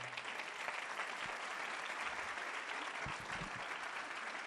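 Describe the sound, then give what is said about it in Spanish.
A crowd applauds the speaker's wife steadily, a dense wash of many hands clapping at an even level throughout, with no voices standing out above it. “Un aplauso a mi esposa Gina.”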